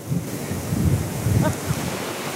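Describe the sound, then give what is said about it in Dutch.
Strong wind roars steadily outdoors in Onna, a small village near Steenwijk, with gusty low rumbles buffeting the microphone in uneven bursts over a constant hiss. No voices are heard. “Ik denk dat je vooral heel veel wind kan voelen.”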